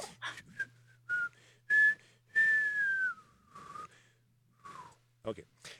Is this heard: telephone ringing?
no